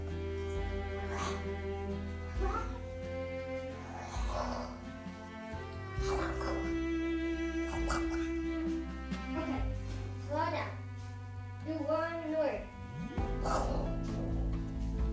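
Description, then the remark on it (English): A voice imitates a dragon's low growl in a series of rough, rising and falling vocal bursts, repeated several times over a steady, droning low background. “Okay, low growl, like long, low growl, highest, lowest, medium sound, low, um, lowest, highest growl”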